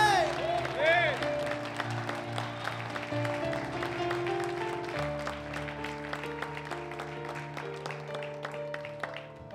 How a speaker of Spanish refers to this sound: ponte de pie en esta mañana y dale un aplauso al Señor